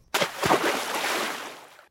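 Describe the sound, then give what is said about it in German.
A sharp water splash followed by a burst of sloshing and spattering that gradually fades out, fairly loud, with no talking. “Wasser.”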